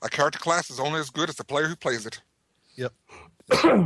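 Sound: sneeze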